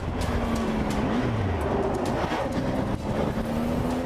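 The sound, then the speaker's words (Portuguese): Dense, steady traffic roars on the Fernão Dias highway in São Paulo, Brazil, as a motorcycle speeds the wrong way against it, its engine pitch sliding as it passes, with heavier rumbling from passing trucks; no voices. “Ele dá a volta e começa a fugir pela contramão na Fernão Dias, uma das rodovias mais movimentadas de São Paulo.”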